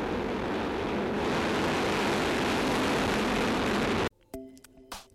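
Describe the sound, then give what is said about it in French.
A rocket lifting off from the Kourou spaceport in French Guiana on 3 April 2014 at 23:00, carrying a radar satellite, the first of the European Copernicus programme: a loud, steady, rumbling roar with a harsh hiss fills the first four seconds, then cuts off abruptly, leaving quieter scattered noises and faint tones. “À 23h, une fusée décolle du port spatial de Kourou en Guyane.”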